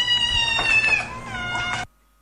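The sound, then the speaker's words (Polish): Several cats meow at once in a tangled, overlapping chorus of wavering, drawn-out cries, fairly loud for nearly two seconds, then cutting off abruptly into silence. “Ten chór kotów mówił, że że one są wystraszone.”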